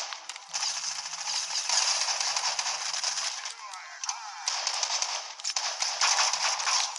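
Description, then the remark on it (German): Repeated sharp harpoon gun shots from a video game, fired in quick succession over a dense, loud wash of hissing game noise that barely lets up throughout. “Das ist eine Harpune. Damit greife ich euch jetzt sowas von Art an.”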